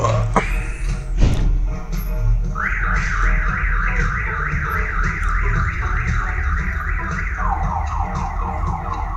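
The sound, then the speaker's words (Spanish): A car alarm blares with a rapid, repeating warble that rises and falls in quick cycles, loud and steady for several seconds, blending with music over a low rumbling background, after a brief thud near the start. “¿Topas cómo se fusiona la alarma con la música, güey?”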